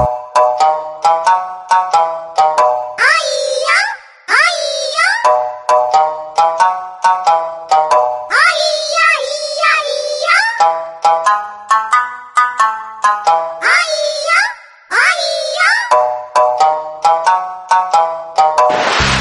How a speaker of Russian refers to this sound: В любом случае, очень похоже по звучанию на рингтон, который сегодня занимает четвертое место.